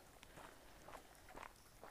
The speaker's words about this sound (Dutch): Ik ben even wat te hard aan het lopen.